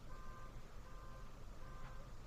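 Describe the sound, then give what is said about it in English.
A car rumbles outside, a low steady engine drone with faint high beeping tones coming and going over it; no one speaks. “Can you hear the car?”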